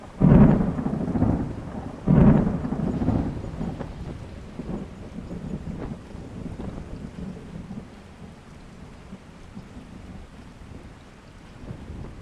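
Two heavy, booming thunderclaps crack close together at the start, then a low rumble fades into a steady wash of falling rain that continues to the end.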